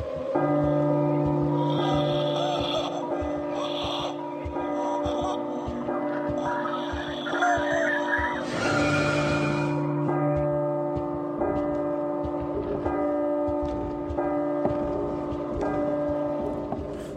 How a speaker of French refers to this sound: ceux qui ont joué, c'est un extrait sur la fin les cloches, c'est révélateur. ça fait pas envie hein, comme ça.